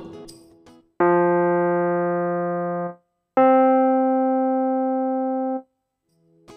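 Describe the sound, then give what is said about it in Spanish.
Two sustained synthetic tones ring out one after another, each a steady, buzzy harmonic chord lasting about two seconds before cutting off: first an octave interval of two F notes, then a fifth interval of the notes F and C. “Escuchemos un intervalo de octava dos notas Fa. Ahora escuchemos un intervalo de quinta, la nota Fa y la nota Do.”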